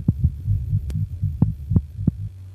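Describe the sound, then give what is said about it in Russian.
A rapid heartbeat thumps steadily in low, muffled pulses, about a dozen beats in under three seconds over a faint hum, with no voices. “Когда была названа улица, где жила его любимая, пульс заметно участился.”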